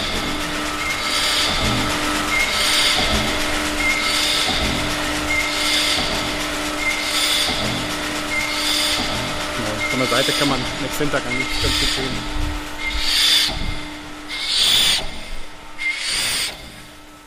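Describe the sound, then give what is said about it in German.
A 120-year-old two-piston air compressor at Zeche Zollern chugs steadily, with a rhythmic, evenly spaced puffing roughly once a second over a constant mechanical hum. A man briefly speaks partway through. “So hört sich also der 120 Jahre alte Zweikolbenkompressor an.”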